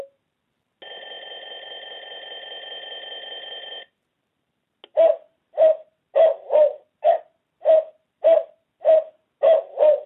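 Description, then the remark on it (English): A talking alarm clock from Cobalt Systems, one of its 11 alarms being demonstrated at volume 8: a steady electronic tone held for about three seconds, a brief pause, then a run of about ten short hooting beeps in an even rhythm, clear. “I'll let you hear the alarms it has once I get into that.”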